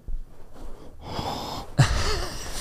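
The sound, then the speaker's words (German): A voice imitates the breathy mouth noises of an ASMR video: soft airy exhales and wheezy breaths, building into a louder, hissing burst of breath near the end, with no words spoken. “ja, ist ein ASMR-Video tatsächlich.”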